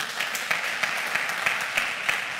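Steady audience applause, a dense wash of many hands clapping with brighter individual claps popping through at irregular intervals, sustained at an even moderate level with no talking.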